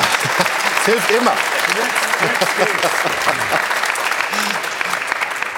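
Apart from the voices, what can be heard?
applause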